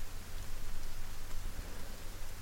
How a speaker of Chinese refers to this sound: 天在下雨，遥远，不确定。